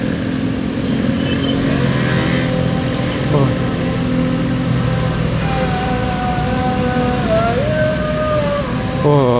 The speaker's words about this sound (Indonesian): Isya Azan Isya cuy berarti udah jam 7an kali ya jam 7 lewat